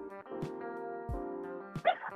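animal, dogs barking

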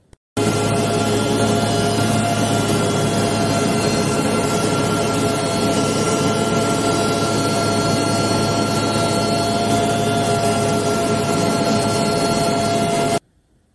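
vehicle, helicopter

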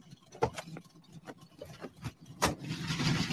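vehicle, car engine running

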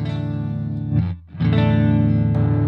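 sound effect, guitar through distortion pedal

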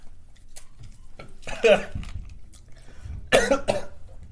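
human body sound, coughing

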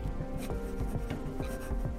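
sound effect, pen writing on paper

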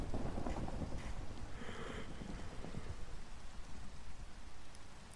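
nature, rain falling

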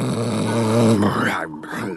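sound effect, loud snoring

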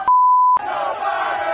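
crowd, crowd chanting

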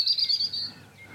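bird, birds singing

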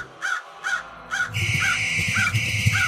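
bird, crow cawing

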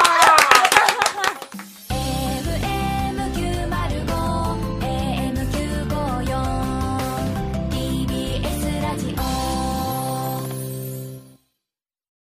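crowd, clapping

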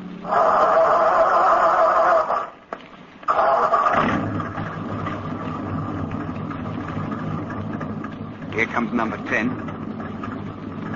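vehicle, truck engine starting

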